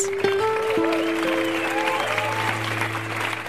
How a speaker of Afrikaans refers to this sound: en die gehoor by die openingsaand van die Silverskermfees het hande geklap en gejuig. Maar dit was nie vir 'n aktrise nie, Dit was vir 'n persoon wat die regisseur Darren Joshua as 'n eie tydse heldin beskryf, die ma van Lavender Hill, Ellen Pakkies.